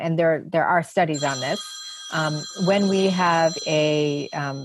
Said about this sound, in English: sorry my phone's ringing